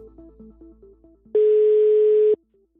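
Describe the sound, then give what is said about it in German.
A telephone ringing tone as a call is placed to Minister Scheuer: one loud, steady mid-pitched beep lasting about a second, preceded by a quieter run of short stepped tones. No one speaks. “Wir rufen ihn jetzt nochmal gemeinsam an, um seine Einschätzung zu den umstrittenen Beschlüssen der Regierung zu hören.”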